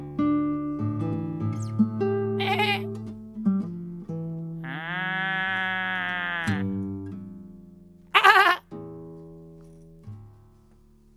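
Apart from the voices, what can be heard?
sheep bleating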